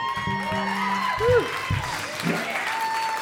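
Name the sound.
audience applause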